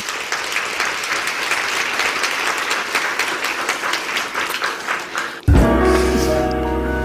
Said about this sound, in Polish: więc myślę, że możemy dla niej ogromnymi, zrobić ogromne oklaski.